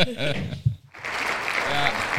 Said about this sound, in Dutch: Zet je nou het applaus aan? Ja. Verkeerde knop, hè?